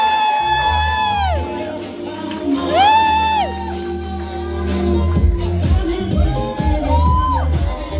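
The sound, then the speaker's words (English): An audience cheers loudly and steadily as a woman is called to the stage runway, with several high, rising-and-falling whoops standing out above the crowd noise throughout. “Make some noise for Lania, y'all.”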